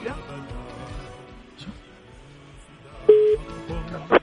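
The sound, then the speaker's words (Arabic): A telephone ring tone on a call, the first ring, sounds as a short, steady mid-pitched tone burst near the end, followed by a brief second ring, over a low murmuring background. “بس يلا نشوف من اول رنه ولا لا هذه الاولى”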